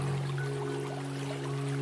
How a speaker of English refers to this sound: as you wash your hands and hear the clear running water.